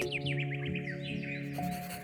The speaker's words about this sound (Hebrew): האמיני לי, סוניצ'קה, שקריאת ציפור אשר כזאת יכולה לנגוע בי עד מעמקי ישותי.